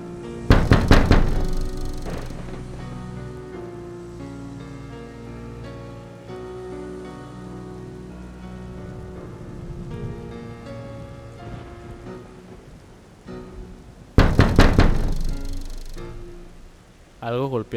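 Bursts of heavy rain pour down near the start and again toward the end, loud and hissing, with soft sustained music filling the quieter stretch between them.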